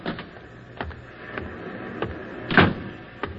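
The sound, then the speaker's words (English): A storeroom door opens with a series of clunks and rattles over a faint creaking drone, ending in a louder knock near the end, with no talking. “uh, this here's the door to the storeroom.”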